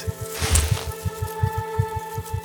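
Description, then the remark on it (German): A fast heartbeat thumps in low, steady double pulses, about seven beats in a couple of seconds, over a sustained tonal hum with a brief hiss near the start. “Sein Herz rast.”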